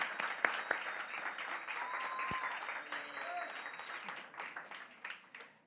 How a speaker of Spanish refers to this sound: Dale un aplauso a Él.